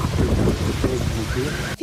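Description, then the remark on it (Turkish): A sandstorm roars over Polatlı, a district of Ankara, Turkey, suddenly turning day into night, in a steady, loud, rumbling wash of wind-driven noise, with faint voices briefly audible beneath it before it cuts off abruptly near the end. “başkentin ilçesi Polatlı'nın üzerini kaplayan kum fırtınası bir anda gündüzü geceye çevirdi.”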